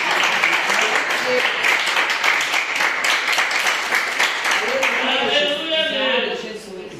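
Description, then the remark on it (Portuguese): An audience applauds in praise of the Lord with sustained, dense clapping that holds steady for several seconds, then a voice begins speaking over the tail as the clapping fades. “E eu agradeço a oportunidade e as palmas que louvam o Senhor.”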